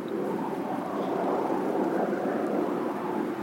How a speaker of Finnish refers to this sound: Ja tuo on lentokone eikä ukkonen.